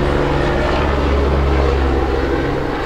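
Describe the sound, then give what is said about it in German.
A helicopter stationed at a nearby BG accident clinic drones steadily overhead, its loud, constant low rumble and whirring engine tone filling the whole stretch without fading, with no voices. “Da kommt ein Hubschrauber, der uns so ein bisschen die natürliche Atmosphäre nimmt, aber das ist wohl ein Notfall.”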